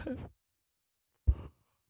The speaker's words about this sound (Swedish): Ja, du får ursäkta, jag har jobbat som en jävla gris, sovit dåligt och eh, eh, precis tränat, så jag är lite sådär trött i huvudet, det var därför jag gäspade.